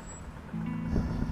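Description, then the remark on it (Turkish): A deep, droning engine rumble swells in after a brief quiet moment and grows louder, the throaty note of a car's modified exhaust as it revs and passes. “Adam koymuş egzozlara bakar mısınız? Sese gürültüye.”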